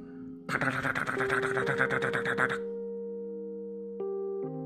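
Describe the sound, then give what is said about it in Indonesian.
A quick burst of keyboard typing, rapid clattering keystrokes for about two seconds, set over a steady low droning tone that lingers after the typing stops. “Saat Agus berjalan menuju sana, tiba-tiba ada suara keyboard sedang mengetik”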